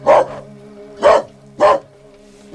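Dogs bark loudly: three sharp, punchy barks about half a second to a second apart, with a fourth starting at the end, over a faint steady hum.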